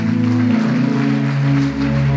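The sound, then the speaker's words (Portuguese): A church audience claps steadily in worship, a dense, continuous wash of applause, with sustained low organ-like tones humming underneath throughout. “Pode bater palmas mesmo, graças a Deus, é isso aí.”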